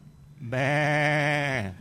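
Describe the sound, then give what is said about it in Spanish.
A single loud sheep bleat with a steady, wavering tone lasting just over a second, heard alone with no talking. “Disculpe, señor que vende ovejas.”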